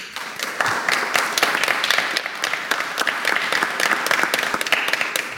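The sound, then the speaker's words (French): An audience in the salons of the Hôtel de Ville in Angoulême applauds steadily for the mayor, Xavier Bonnefond, dense overlapping claps forming a continuous, fairly loud wash of sound that holds throughout with no voices on top. “Applaudissements mérités et très spontanés parmi le public, bien évidemment.”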